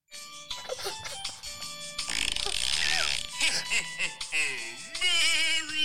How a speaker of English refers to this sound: you can press Santa mm-hmm. and he farts. Merry Christmas. That's very festive, that isn't it? Make him fart again.